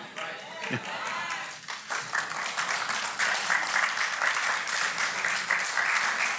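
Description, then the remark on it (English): An audience breaks into sustained applause, a dense wash of many hands clapping that builds and holds steady at a fairly loud level, with some voices mixed in at the start. “What was the applause for?”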